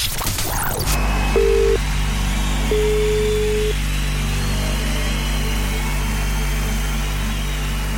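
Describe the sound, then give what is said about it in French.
A short burst of noise gives way to two telephone tones of an outgoing call placed by a computer to a participant picked in a random draw, one brief and one longer, sounding over a steady low hum with no one speaking. “on va demander à notre petit ordinateur de passer, de procéder au tirage au sort. Restez proche de votre téléphone à tous ceux qui ont participé, puisque l'ordinateur va appeler l'un d'entre vous.”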